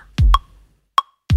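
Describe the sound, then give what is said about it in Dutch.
Two deep, punchy electronic kick drum hits programmed in Ableton software, each with a quick downward thump, separated by sharp metronome-style clicks ticking in between, clean with no voices. “En dan ga je een basrum proberen.”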